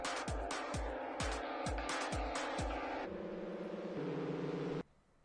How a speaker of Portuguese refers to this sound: Para começar o nosso bronca, chama a nossa vinhetinha, diretor. Chama logo a vinhetinha.